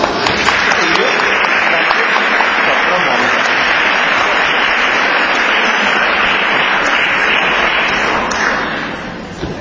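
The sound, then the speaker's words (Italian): An audience applauds in greeting for about nine seconds, a dense, loud wash of many hands clapping that stays even throughout and then starts to thin out at the very end. “Allora, vi salutiamo, con un bel applauso.”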